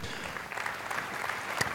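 An audience claps in a dense, steady patter of many overlapping hand claps, moderately loud and sustained with no talking over it.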